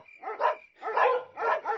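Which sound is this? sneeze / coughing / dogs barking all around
dogs barking all around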